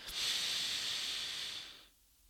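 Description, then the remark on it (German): A single long, deep, conscious breath drawn into the belly with eyes closed, an airy, hissing rush of air lasting almost two seconds before fading into quiet, with no talking. “Und auch wenn ich jetzt so mal mit mir einchecke, mal die Augen schließe und ein bisschen atme, so, aber wirklich bewusst atme, so tief in den Bauch, nicht so dieses flache Atmen, was man sonst meistens macht,”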